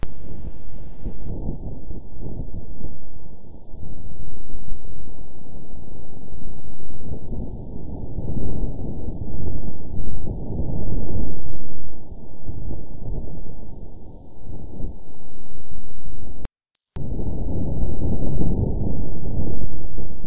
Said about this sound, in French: La pause son. Son pour euh, le vent sur Mars pour l'instant. Alors il est là.